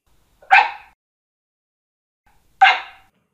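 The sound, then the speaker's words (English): An Australian Cattle Dog barks twice, each a short, sharp, fairly loud yelp about two seconds apart, with silence in between and no talking. “says she was on a picket line once for the Australian Cattle Dog Union.”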